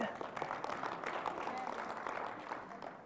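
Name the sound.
audience clapping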